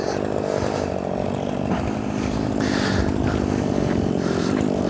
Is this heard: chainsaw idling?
yes